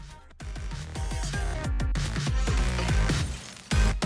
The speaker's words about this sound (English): You hear that glass breaking again, kind of gets used here and there little samples of voices and things.